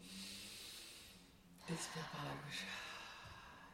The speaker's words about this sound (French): Des exercices de respiration. Alors, du coup, toi, l'air qui m'écoute un instant, on va faire l'exercice de respiration. T'es prête Inspire par le nez.